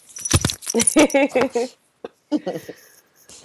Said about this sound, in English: Yep, she wants in. Um, jingle, jingle.